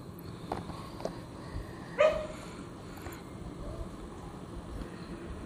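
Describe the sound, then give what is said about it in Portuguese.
A single sharp bark from a small dog rings out once over a steady low background hum, then the background settles back to quiet noise. “No cachorrinho.”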